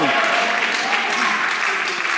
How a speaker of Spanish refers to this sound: Yo no sé por qué eso del trabajo nomás aplaudieron poquitos